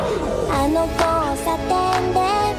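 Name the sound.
segment theme music jingle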